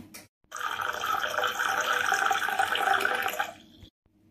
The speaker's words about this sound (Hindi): cork के निकलते ही तरल शैंपेन का फेन उड़ने लगा